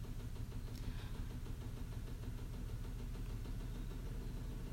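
A washing machine runs steadily, a loud low mechanical hum with a faint rhythmic thumping and rattle, continuous throughout with no one talking.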